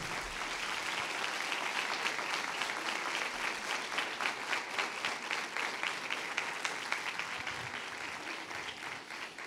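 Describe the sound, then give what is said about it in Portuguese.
A large audience claps loudly and steadily for several seconds to give glory to God, a dense, sustained wash of applause with no voices standing out. “Ah, vai aplaudir, aplauda forte.”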